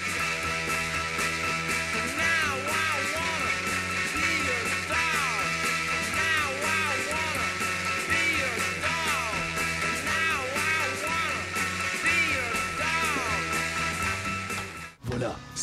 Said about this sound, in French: Ça, c'est punk, bordel. C'est tellement punk que c'est né avant le mouvement punk. Et en plus d'être punk, c'est beau.